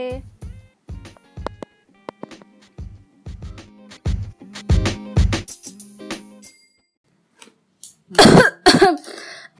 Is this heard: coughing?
yes